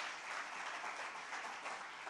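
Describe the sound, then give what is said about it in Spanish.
Steady applause from a church audience, a dense wash of many hands clapping at once, sustained and fairly loud throughout with no voices breaking through. “Entonces, denle un aplauso, Señor, porque es un gran privilegio para hacerlo en los siguientes días.”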